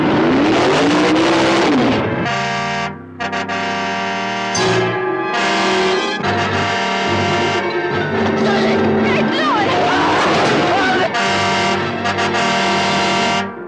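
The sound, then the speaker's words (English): A loud car engine revs and accelerates, its pitch repeatedly climbing and dropping in surges, with brief lulls between bursts over about fourteen seconds; the driverless car from the 1977 film The Car. “Evil has visited the earth in many forms. Now it returns as the car.”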